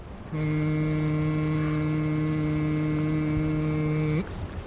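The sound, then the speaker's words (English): A man hums a single steady, tuneless note for about four seconds, fairly loud, holding the pitch evenly before letting it drop off abruptly, at the water's edge of a river near the Boise foothills, where gnats rise up. “The late afternoon sun gives the marsh grass a soft focus, and a blizzard of gnats rises up near the water's edge where a man is humming.”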